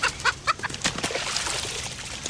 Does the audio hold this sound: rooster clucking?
yes